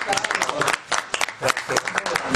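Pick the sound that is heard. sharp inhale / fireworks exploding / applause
applause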